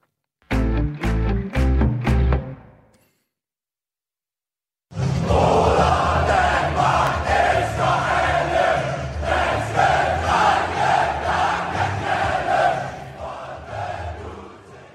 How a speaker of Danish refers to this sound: Det her, det er lyden af parken og den røde mur, der gynger. Det stammer fra optakten til VM-kvalkampen mod Østrig.